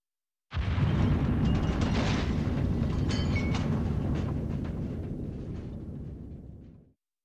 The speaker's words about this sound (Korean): 독일군의 포탄이 200m가량 떨어진 땅 위에서 장렬하고 있었다. 나는 그 소리를 들으며 생각했다.